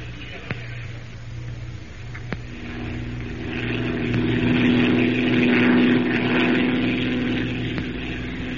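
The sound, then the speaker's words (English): A hired propeller airplane flown by an Arabian pilot drones steadily in flight toward the jungle, its low hum swelling louder toward the middle before settling into a sustained, even roar. No one speaks over it. “We'll have to pack, and buy some clothes suitable for the jungle, and most important of all, hire a plane to get us down there.”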